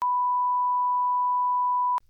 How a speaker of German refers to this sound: So. Jetzt darf ich mir wieder so einen Piepton runterladen und den rein.